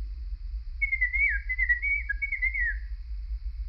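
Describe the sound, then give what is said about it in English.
A thin, high whistling chirp warbles for about two seconds, wavering up and down in pitch like a small bird, over a low steady rumble in an otherwise quiet space, heard at night through the closed door of a room. “It wasn't a squeak as I'd first thought, it was more like a chirp.”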